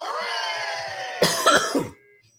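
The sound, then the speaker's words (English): A short cluster of three harsh coughs in quick succession, loud against a steady humming background that fades out right after. “And if I could stop coughing, that would even be better.”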